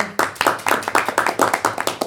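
A short round of applause from a small group, with steady, fairly quick hand claps repeating close by at a moderate volume. No one speaks during it.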